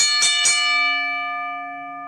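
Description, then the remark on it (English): Two quick, loud metallic clangs of a wrestling ring bell, followed by a bright ringing tone that hangs and slowly fades, with no voices. “go ahead and ring the bell.”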